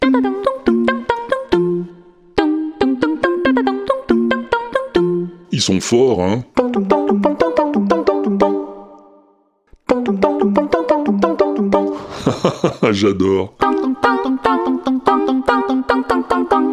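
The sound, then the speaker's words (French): A vocal group imitates iPhone ringtones, their voices forming bright, bouncy, repeating melodic notes in a steady rhythm. A person briefly talks and laughs over it twice. “Et tu sais qu'ils imitent aussi les sonneries d'iPhone.”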